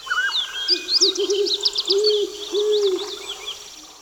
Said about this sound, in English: Nice birds.